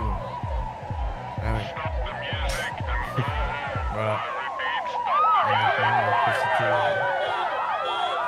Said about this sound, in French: La, sirène derrière et tout. Stop the music. Please come home. Les gens qui crient et tout.